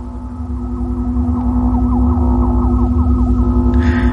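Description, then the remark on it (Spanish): A strange, eerie buzzing hum coming from a monastery orchard drones on without a break, loud, over a throbbing low rumble, with faint warbling tones sliding up and down inside it. “Era ese extraño zumbido otra vez.”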